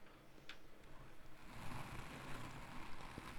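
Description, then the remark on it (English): Crackly scratching of beard hairs rubbed against a microphone for ASMR, a dense rustle like rain on a tin roof that grows louder and fuller halfway through, with no voices. “Uh, rub your ha- your beard hairs on there.”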